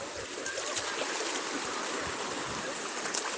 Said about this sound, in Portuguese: No meio da praia passa, um, passa então um lindo córrego de águas tão melífluas. É aqui onde eu moro. E aí você escolhe esse córrego para sentar assim na beirada e repousar. Por esses minutinhos você chama, cara, esse córrego de lar.